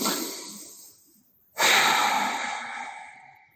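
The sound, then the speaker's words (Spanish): A slow, deep breath drawn in, a brief pause, then a strong, rushing exhale through the nose that gradually tapers off, clear with no talking, as part of a guided breathing exercise. “Inhala profundo. Y sácala nasalmente con fuerza pero suave.”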